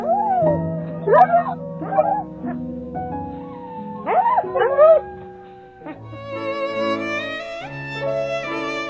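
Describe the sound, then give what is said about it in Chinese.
A wolf lets out several short, wavering howls and yips at the moon, rising and falling in pitch, over a steady musical backdrop; the howling stops and a bright chord of music swells up. “说完，吉奥就昂首挺胸，对着月亮唱了一曲狼族的爱之歌。”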